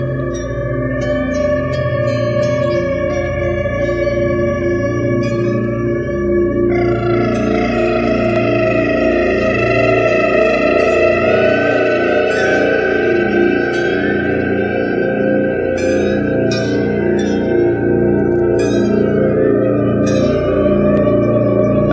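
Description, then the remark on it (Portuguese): An eerie synthesizer version of the Dies Irae melody, used in the opening of Stanley Kubrick's film The Shining (1980), plays slow and ominous over deep sustained bass drones, with heavy effects, echo and reverb smearing the tones into a dense, unsettling wash. No voices. “já está ouvindo no fundo, o ouvinte com certeza conhece, é a versão mais arrepiante da melodia Dia Zirae.”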